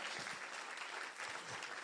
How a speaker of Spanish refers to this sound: Alguien dice amén. Vamos a dar un aplauso fuerte a Jesús. Give the Lord a hand clap.